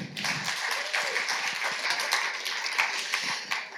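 Sustained applause from an audience welcoming a speaker, a dense wash of many hands clapping at a steady, fairly loud level throughout, with a few sharper claps standing out.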